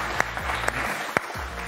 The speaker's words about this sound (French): Sur le plateau, vous pouvez applaudir